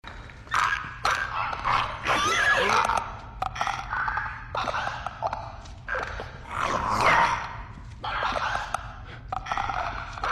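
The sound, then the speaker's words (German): Harsh, guttural growls with rasping clicks and gasping snarls from infected creatures called Clickers in a video game come in repeated bursts across the whole stretch, loud, with no one speaking. “Also natürlich ganz vorneweg die Klicker, bei denen du, sobald du das einmal gehört hast, sofort, oh shit, das ist wirklich eine Gefahrensituation gedacht hast.”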